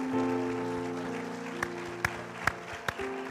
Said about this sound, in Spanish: el aplauso, Señor.